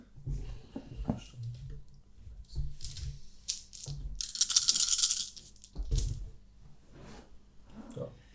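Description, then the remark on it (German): Dice clatter and rattle across a hard surface in several quick bursts as players each roll for a 'Begreifen' check, the loudest tumbling roll in the middle, with low murmuring voices and faint clicks around it. “Könnt ihr bitte nochmal alle auch kurz auf Begreifen würfeln?”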